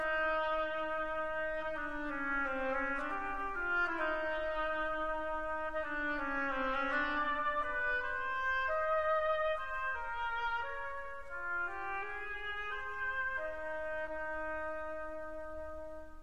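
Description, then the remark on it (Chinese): An oboe, representing a duck, plays a slow, lyrical melody of sustained, reedy notes that rise and fall at a steady, moderate volume, with no voices. “刚才我们听到的乐器的声音叫做双簧管，我们以前也有跟大家介绍过，它代表的呀是鸭子的声音。”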